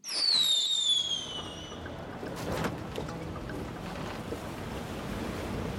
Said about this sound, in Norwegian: Nå blir det uvær! Ja. Det er allerede hvite skumtopper på bølgene. Det gjelder å komme til land før det er for sent. Båten tar inn vann.